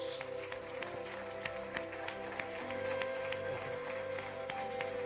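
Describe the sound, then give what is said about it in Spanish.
An audience at a church service applauds for Jesus steadily for about five seconds, a dense crackle of many hands clapping at once, with a faint sustained tone humming underneath. “Démosle un fuerte aplauso a Jesús.”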